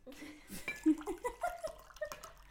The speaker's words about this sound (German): Also ich sage jetzt, ich tue jetzt Wasser auffüllen.